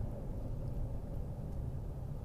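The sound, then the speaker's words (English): A steady, low rumble of road traffic fills the background, a continuous droning wash of engines and tires with no distinct pass-by, moderately loud and unbroken throughout. “Man, there's a lot of traffic today.”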